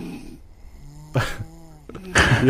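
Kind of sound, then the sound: vocal imitation, imitated snoring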